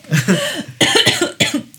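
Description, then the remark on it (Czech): A woman clears her throat in a series of coughs, three rough bursts in quick succession, fairly loud with no speech around them. “Pardon, jsem se odkašla.”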